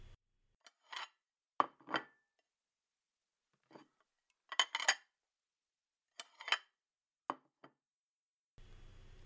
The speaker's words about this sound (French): Le serveur apporte mon café.